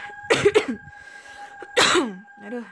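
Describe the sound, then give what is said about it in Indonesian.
A person coughs: a quick double cough, a pause, then another harsh cough and a softer one trailing off, over a faint steady hum. “agak sedikit batuk dan kopiku udah habis”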